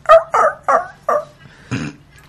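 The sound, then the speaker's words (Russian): A voice imitates a whining dog: five short, plaintive whimpering yelps in a quick uneven series, fairly loud, the last one breathier and rougher. “Я в тюменском рейсе исполнял жалобную собачку.”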